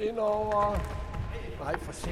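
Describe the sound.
Players in a recreational football game at BK Skjold on Østerbro in Copenhagen shout to each other on a pitch while a ball thumps and bounces, with footsteps and scuffling of the casual game.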